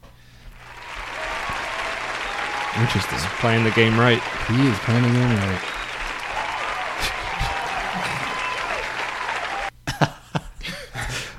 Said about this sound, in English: Man, that round of applause, man.